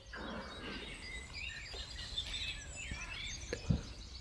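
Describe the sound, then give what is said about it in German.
Soft, scattered bird chirps and tweets drift over a quiet outdoor background with a gentle breeze, the calls light, with no one speaking. “Jedes Zwitschern der Vögel, jeder leichte Windhauch, der hörbar ist, umspielt liebevoll diesen Raum, der nicht dargestellt werden kann.”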